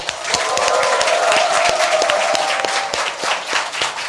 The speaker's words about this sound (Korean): 국민TV 시사 토크 마마이스 여러분의 힘찬 박수와 환호와 함께 시작하겠습니다.